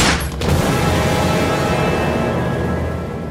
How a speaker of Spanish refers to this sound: Un disparo en la cabeza. ¡Cállate, cállate! Y dos en la espalda.